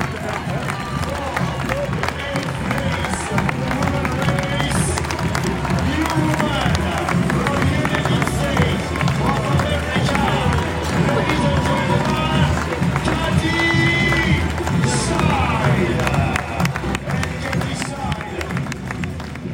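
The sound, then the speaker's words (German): Running footsteps of the speakers themselves pound a dirt mountain trail on the last descent toward Chamonix during a race, in a quick, steady rhythm, loud throughout, with a murmuring crowd and scattered clapping behind them. “Und wir sind jetzt an der Strecke im letzten Abstieg Richtung Chamonix. Wir sind selbst am Laufen.”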